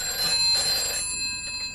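A telephone bell rings with a bright, rattling trill that sounds for about a second, then trails off into a quieter ring. Nobody speaks.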